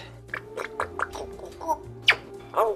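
A parrot in its cage chatters in a rapid string of clicky, gurgling bursts, then gives a sharp squawk and a warbling, rising call at the end, fairly quiet overall with a low steady hum underneath.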